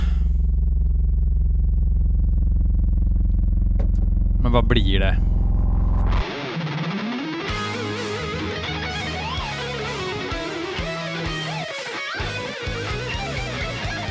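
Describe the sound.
A low, rumbling distorted drone gives way to technical death metal, with fast, dense shred guitar runs filling the track loudly; a voice speaks briefly near the start.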